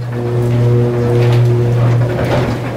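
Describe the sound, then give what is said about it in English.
The lower south cage of a mine elevator plunges downward very fast, at a speed like a descending aeroplane, past a thousand feet, with a loud, steady mechanical drone and low hum, a rushing roar and a few clattering knocks toward the end. “Lower south cage. And then we just start rocketing downward.”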